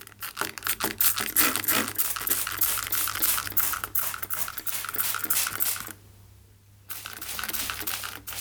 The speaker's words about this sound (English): Does that sound familiar? Well, it probably does if you grow any plants. It is the sound of a mister. But does this oft quoted cure for dry air actually work to raise humidity?